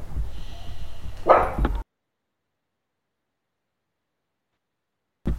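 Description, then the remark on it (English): A dog lets out a short bark-like burst over low background rumble, then the sound cuts to silence for several seconds before the noise briefly returns. “The dogs were getting ready to go on.”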